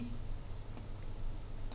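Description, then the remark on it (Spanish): Two short, crisp computer mouse clicks about a second apart, fairly quiet over a low steady background hum. “Lo que os, diga, lo que os decía aquí de este tipo de, de estas eh, textos deformados que les llama, pues hago clic aquí.”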